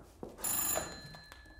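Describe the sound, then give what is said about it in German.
A telephone rings once in Gila's room around midnight, a bright, shimmering bell burst that lingers briefly before fading. It sounds moderately soft, with no voices. “Und dann, gegen Mitternacht, als die beiden sich so langsam zum Schlafen hinlegen, da klingelt in Gilas Zimmer auf einmal das Telefon.”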